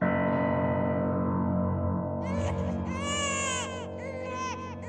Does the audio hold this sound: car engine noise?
no